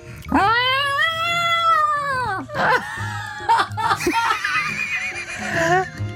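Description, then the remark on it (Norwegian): A person imitates a happy cat being given a big bowl of cream by its owner, with a long, rising-and-falling meow, then adds a few shorter, warbling cat-like vocal sounds, fairly loud, with brief laughter mixed in. “Du er en katt som ikke har klart å fange noe mat til deg selv, og nå får du en stor skål med fløta din eier.”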